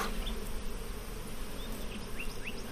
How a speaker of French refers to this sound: Moi, j'ai des abeilles qui sont assez douces quand même. Le son est pas le même quand elles sont agressives. Celle-là, par exemple, qui tourne autour de toi, elle est douce. Aucun souci.